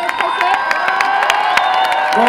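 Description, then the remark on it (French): A dense crowd cheers and shouts with steady energy, sharp claps and whoops popping out above a sustained roar of many voices, encouraging seven defendants on trial at the court in Gap. “Mais pourquoi c'est important d'être présent, même si pour entendre juger la fraternité on peut faire les applaudir et crier pour encourager les, les sept euh, qui sont au tribunal.”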